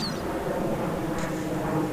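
A steady, broad rumble of airplanes passing overhead fills the background, a continuous drone with no voices and no breaks.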